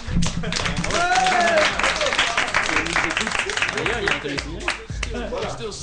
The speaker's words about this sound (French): Donc, euh, les mines, Polytech, l'École du Bois, ICAM et Oniris. Voilà, c'est bien de le rappeler. On peut les applaudir, toutes ces écoles.